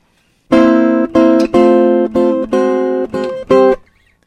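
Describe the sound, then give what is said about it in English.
A guitar strums a barred C chord on the four treble strings in a steady rhythm, about seven bright, ringing strokes with brief gaps between, fairly loud, with no voices. “To be safe, pick only the four treble strings, the ones you are fretting. For instance, and with a C chord, it's like this.”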